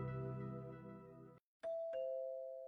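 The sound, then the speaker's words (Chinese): A room's doorbell rings: a sustained, rich chime tone, a brief pause, then two quick bright strikes settling into a steady ringing tone. It is fairly loud, with no talking. “房间的门铃响起，刚订好的餐点送了进来，这才头也没有抬的退了出去。”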